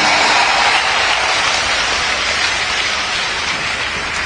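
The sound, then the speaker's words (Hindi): A crowd applauds loudly and steadily, dense overlapping claps blending into a continuous hiss that holds without a break for several seconds, with no voices heard. “और आपके हाथ की तालियां जरा हाथ उठाकर दो दिव्य शक्तियों का मिलन है आज”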